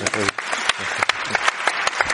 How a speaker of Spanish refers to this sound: Sí, sí. Un aplauso para él.